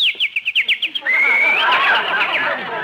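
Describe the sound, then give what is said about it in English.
A sparrow chirps early in the morning in Beverly Hills, first in a quick run of about eight short, evenly spaced notes, then breaking into a dense, continuous twittering warble. No one speaks. “That sparrow must be building a nest.”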